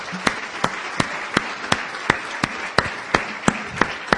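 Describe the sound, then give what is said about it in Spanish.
A standing crowd at an Amway business event applauds steadily, a dense wash of clapping with one loud set of hand claps punching through at an even, quick rhythm about three times per second. No one speaks. “Y les demos el más fuerte aplauso que se puedan imaginar.”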